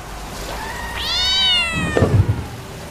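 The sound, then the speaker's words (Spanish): A single drawn-out cat meow rises and falls in pitch, clear, followed by a brief low rustling or dribbling noise. No one speaks. “Pobre gato.”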